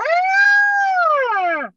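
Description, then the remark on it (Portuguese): A single loud siren wail holds a steady high pitch for over a second, then slides downward and cuts off, with no voices or other sounds around it. “O que justifica, o que justifica a sirene?”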